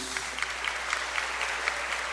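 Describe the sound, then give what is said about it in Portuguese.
An audience at the Templo Central in Londrina applauds steadily at the end of a sermon, a dense wash of many hands clapping with small rhythmic bursts throughout, fairly loud and with no voices over it. “Se você puder, aplauda este Jesus.”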